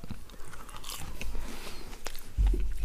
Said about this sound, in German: Sorry, ich muss gerade schlucken.